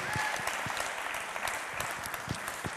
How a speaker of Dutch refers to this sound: Hoe fantastisch is dat? Laten we Jezus daar een ongelooflijk groot applaus voor geven.